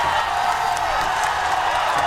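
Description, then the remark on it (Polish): A dense, steady roar of a large crowd shouting and cheering, with scattered claps and occasional sharper whoops rising out of the continuous din. “Tu ludzie zaczynają krzyczeć, bić brawo.”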